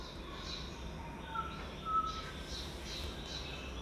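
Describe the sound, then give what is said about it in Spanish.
Faint, scattered bird chirps and calls in a lush green forest of firs and beeches, along wooden boardwalk trails, over a soft background hum, with no one talking. “Son unas pasarelas de madera forman unos senderos y comenzamos a ver a nuestro alrededor todo verde y a escuchar los pájaros.”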